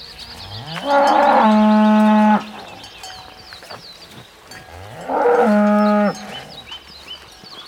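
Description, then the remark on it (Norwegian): Two long, loud cow moos, one starting near a second in and another around five seconds, with quieter barn background noise between them and no talking. “Og noen leter i fjøset, for der det er kyr, der er det forurensning.”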